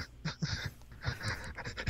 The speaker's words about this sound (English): just me breathing over and over. Again, just like breathing over and over caused Into all the, the mics to echo.